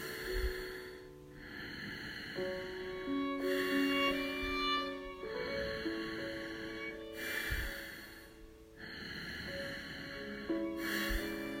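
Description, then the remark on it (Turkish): A person takes slow, audible breaths in and out through the nose, steady, over a soft sustained ambient music bed, with each breath coming every few seconds. “Ve şimdi burnumdan nefes alıyorum, burnumdan nefes veriyorum.”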